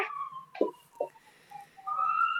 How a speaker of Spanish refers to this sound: Y tus, y tus casas están cerca, entonces, wow, ambulancia. Y tus casas están cerca, así que no es tan problema. Cállate, ambulancia